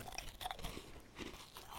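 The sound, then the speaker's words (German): A crunchy snack is bitten and chewed, with a quick run of crisp, crackling crunches in an irregular rhythm and no talking over it. “Essen und, und knistern, super. Oh, das Geile ja? ist, das krümelt auch noch wie verrückt.”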